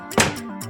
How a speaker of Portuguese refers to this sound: Ele saiu e bateu a porta.